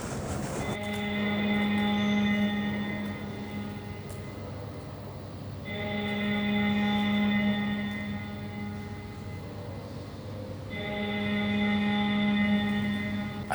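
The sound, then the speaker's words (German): A parliament's electric bell calling the members of parliament rings at 6:30 pm in three long, steady bursts of about four seconds each, with short gaps between them. The tone is harsh and buzzing, like a fire alarm, and nobody speaks. “das ist die Klinge für die Abgeordneten”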